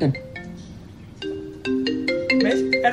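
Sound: iPhone ringtone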